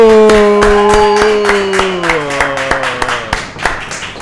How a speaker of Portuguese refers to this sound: E pessoal, hoje nós temos aqui sem plateia, mas vou pedir à equipa que está aqui connosco que me ajudem com uma enorme salva de palmas a dar as boas-vindas